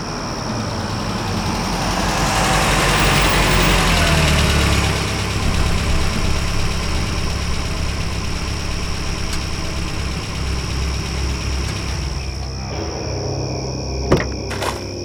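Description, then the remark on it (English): A car engine runs steadily for most of the stretch while being driven at night to Boston, a low sustained hum with a faint whine above it, winding down near the end before a brief click or clunk. “That night, I drove to Boston.”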